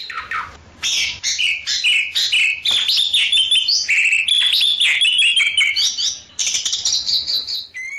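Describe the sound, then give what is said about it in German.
A white, starling-sized bird with a faint bluish tinge and a black-blue stripe from around the eye to the beak calls continuously in a busy run of chirps, whistles and harsh squawky notes, mostly high-pitched and loud, with rapid varied phrases and a brief pause near the end; no one speaks. “Jedenfalls dreht sich um einen sehr schönen Vogel.”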